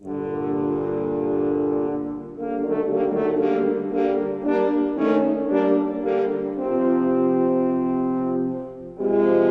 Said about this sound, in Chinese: 常常扮演反派角色的大野狼是三只法国号的声音组成，充满了威胁感。